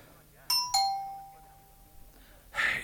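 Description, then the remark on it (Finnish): A two-tone doorbell, its button pressed again, chimes twice in quick succession, bright and ringing, its tone lingering and fading before a brief muffled noise at the end. “Paitakaa vielä nappia.”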